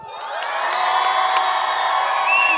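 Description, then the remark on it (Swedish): A crowd at a sermon cheers loudly and continuously, a dense roar of many voices with high shouts and whoops rising above it, sustained at a steady level throughout. “Jag undrar vilken tribe som kan jubla mest.”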